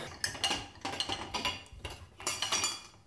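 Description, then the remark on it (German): Metal pots and pans clatter and clink as someone rummages through them looking for a small pot (Reindl), a run of irregular bright knocks and scrapes in bursts over about three seconds, with no talking. “Okay, pass auf, jetzt brauche ich ein Reindl.”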